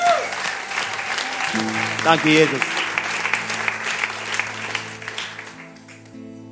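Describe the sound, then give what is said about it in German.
Steady applause from a church audience for people celebrating their birthdays, with a man speaking briefly over it and music tones beneath; the clapping gradually thins toward the end. “So euer Applaus.”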